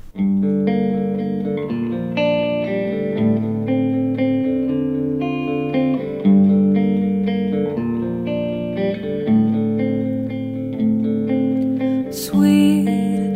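A band plays an instrumental intro of steady, sustained chords with a processed, effects-heavy guitar tone, holding an even volume throughout with no singing yet.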